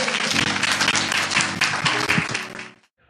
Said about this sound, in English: But if you got anything out of the word, somebody give God another hand clap of praise.